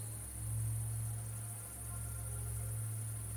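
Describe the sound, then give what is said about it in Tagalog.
A steady, high-pitched drone of night insects chirping outside a house at night, continuous and fairly faint, with a low hum and soft background hiss underneath and no voices. “Ang naririnig ko na lang ay ang mga panggabing insekto na humuhuni sa labas.”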